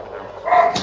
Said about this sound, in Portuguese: É. Andando ouvir o cachorro latindo. É, a Flash a gente tá ouvindo ainda.